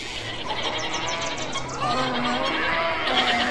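Several goats bleat over a busy outdoor din at a large animal fair with cows, bulls, camels, ducks, chickens, donkeys and horses, their wavering calls overlapping amid a steady crowd-like murmur of livestock and background noise.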